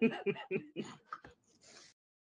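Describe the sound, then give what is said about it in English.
A quick series of throaty coughs in uneven bursts, trailing off into a softer, breathy rasp at the end. “No, that was definitely not me. I was coughing.”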